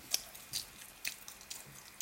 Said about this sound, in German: Ich schmatzt auch noch extra schön